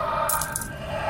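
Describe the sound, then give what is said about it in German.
A short burst of metallic coins clinking and jingling against each other, bright, with a few quick overlapping chimes before it settles into a low background hum. “Und je näher ihr dem Ort kommt mit eurem Kopf, an dem gerade noch eure Füße standen, als ihr langsam aber sicher unvermeidlich in die Münzen absinkt, umso lauter wird das Geschrei der Münzen.”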